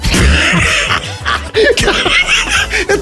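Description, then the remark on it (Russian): A man imitates a harsh, hacking smoker's cough: a run of rough, rasping bursts with wheezy breaths between, mixed with a few snickering laughs. “Табак должен рекламировать одетый мужик. Причем а с, с такой, с кашлем.”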